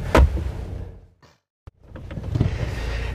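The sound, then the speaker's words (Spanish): A front door in Alicante opens on a 16 °C day as someone leaves for work: a heavy clunk, a short hush, a sharp latch click, then rising background noise as the door swings open to the outside. “A ver que abramos la puerta para salir hacia el trabajo.”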